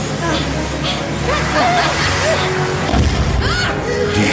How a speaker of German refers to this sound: Explosion hatte der Gräfin die Haube vom Kopf gefegt.